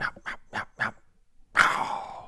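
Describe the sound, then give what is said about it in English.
A voice imitates a turkey gobble in open woods during a turkey hunt, fairly loud: four quick throaty pulses, a short pause, then a harsher drawn-out call that trails off downward. “that's a turkey.”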